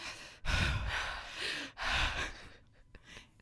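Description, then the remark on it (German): A voice imitates loud, heavy breathing: two long, rasping breaths, each a harsh rush of air, followed by a few softer, fading exhalations. “Ich hörte nur laut, lautes Atmen.”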